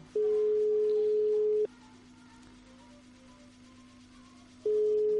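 A steady telephone ringback tone during an outgoing call to Palma city: a long electronic beep of about one and a half seconds, a three-second pause with a faint hum underneath, then the tone starting again, clear.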